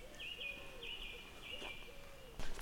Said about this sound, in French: Je suis au milieu de la nature. On entend un coq au loin, des tourterelles.